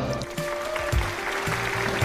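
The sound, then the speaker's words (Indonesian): A crowd applauds to welcome a special guest, the student council head of SMK Materi Probolinggo, in a dense, steady burst of clapping lasting about two seconds, with a faint sustained tone running underneath and no one talking. “Wah, tepuk tangan dulu dong.”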